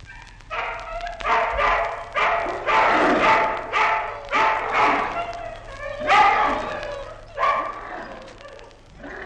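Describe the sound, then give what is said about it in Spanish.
About a hundred hungry dogs growl and snarl together at night while gnawing meat, in a dense, overlapping chorus, loud, rising in rough bursts every second or so with no pause for the whole stretch. “De noche, en la oscuridad, de cien perros a la vez se oía el roer de los dientes, el gruñido de gusto, el ruido de las lenguas.”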